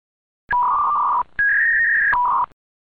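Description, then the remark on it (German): Three back-to-back bursts of steady, buzzing dial-up modem data tones, from the user's modem, then the internet provider's modem, then the user's modem again, each a little different in pitch, loud and filling about two seconds, with no voices. “In diesem Falle hören wir gleich drei Datenübertragungen. Einmal von unserem Modem, dann vom Modem des Internetanbieters, dann wieder von unserem Modem.”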